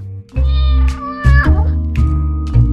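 A cat meows loudly, a drawn-out wavering cry followed by several shorter, rising meows in quick succession, with no other sounds around it.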